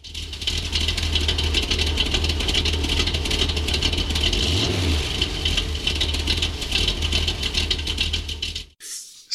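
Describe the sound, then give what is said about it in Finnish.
A car engine rumbles loudly and steadily with a deep, rattling drone, briefly revving up midway before the sound cuts off abruptly near the end. “Nyt on ö, tästä tuota välipörinästä huolimatta, meillä on ollut täysin pörisemätön auto ö, koeajossa.”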